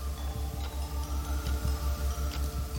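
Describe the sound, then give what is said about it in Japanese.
A gold pocket watch with a chain and a mirror inside its lid, its hands moving counterclockwise, ticks steadily, its small regular clicks over a low, pulsing background hum, with no voices. “その懐中時計は金色に輝いていて蓋の内側に鏡がついていたしかも針が反時計回りに動いているうわー何これこんな懐中時計初めて見た”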